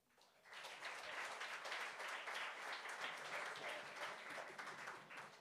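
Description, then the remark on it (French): An audience applauds two performers' work, many hands clapping densely and steadily for several seconds after a quick swell at the start, with no talking over it. “une main d'applaudissement, tout le monde.”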